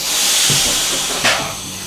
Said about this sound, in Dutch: We proberen alle treinen eens in de week door de wasmachine te kijken. Dat ze dan eh, weer lekker schoon ingezet kunnen worden.